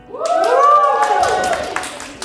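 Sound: audience cheering and applauding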